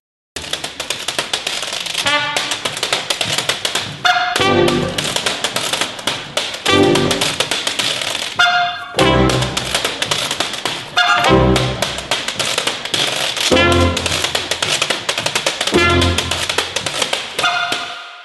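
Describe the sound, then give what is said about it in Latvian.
A washboard played in a brisk, steady rhythm: loud, dense scraping and clattering strokes repeating for the whole stretch, with no talking over it. “Zināt, kā skan veļas dēlis? Jā. Nu, drusku paklausīsimies.”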